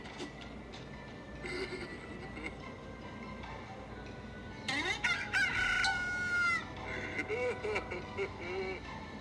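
rooster crowing

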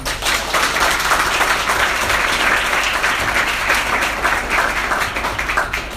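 audience applause

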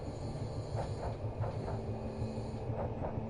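train running on rails

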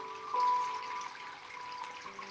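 flowing stream water

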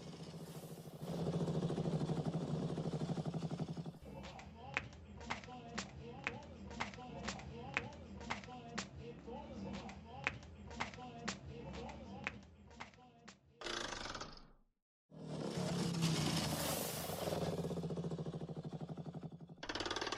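motorcycle engine idling

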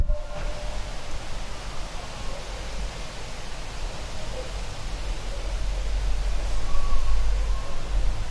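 wind blowing

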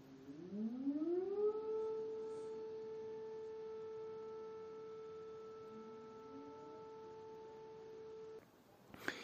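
air raid siren wailing

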